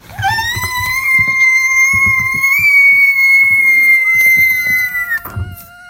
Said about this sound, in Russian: Вот ты можешь показать мне, какой самый высокий звук ты можешь издать? Давай, начинай пищать.